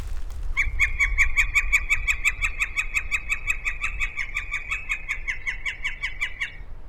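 A northern flicker's call plays from a phone held up to a microphone out in the field: a long, steady run of rapid, evenly spaced high notes, about thirty in a row, loud and sustained over a low rumbling background.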